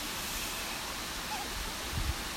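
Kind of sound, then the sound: nature, rushing waterfall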